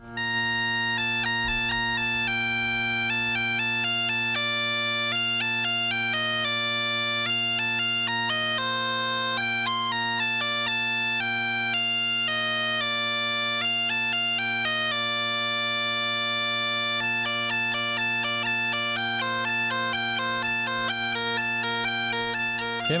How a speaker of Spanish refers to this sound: maravilla poder escuchar esta música, porque no se crean ustedes que es fácil el tocar la gaita, porque eso tiene, tiene su aquel.